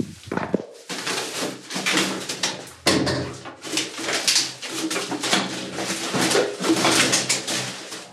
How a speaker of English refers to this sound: And so I'm taking out the trash right now, and it's interesting. taking out the trash, it's one of those things that, like, I don't know, it's just always gonna be a part of your life, right? One second as I throw it down the chute.